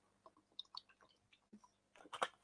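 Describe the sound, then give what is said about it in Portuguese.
Someone sips water, quiet wet mouth clicks and small slurps scattered over a couple of seconds, ending in a louder gulp. No one speaks. “Bebe mais um golinho d'água aqui, vou falar sobre alongamento.”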